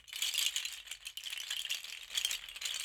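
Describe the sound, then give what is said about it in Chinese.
A seashell shaker rattles continuously for about three seconds, a bright, hissy clatter of countless tiny clicks that swells and eases in gentle waves, with no talking. “好，来秀一下这个贝壳怎么用。”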